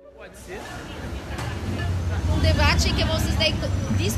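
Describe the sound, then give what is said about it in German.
Busy city street ambience at 6 pm in Botafogo, Rio de Janeiro: a steady low rumble of passing traffic mixed with the indistinct chatter of many people, swelling slightly louder and staying continuous throughout. “18 Uhr abends Verkehr, beide kommen angerannt von der Arbeit.”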